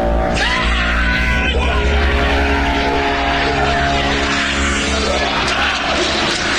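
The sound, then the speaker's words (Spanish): A voice imitates a loud, drawn-out yelled call, strained, holding steady for several seconds over a heavy rumbling background. “De algo así como, nada más oímos un llamado.”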